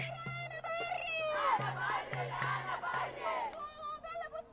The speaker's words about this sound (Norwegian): Jeg bestemmer, jeg bestemmer, ropes det fra demonstrantene. Kvinnedagsmarkeringen i Beirut ble utsatt. Likevel marsjerte flere hundre personer gjennom gatene den 8. mars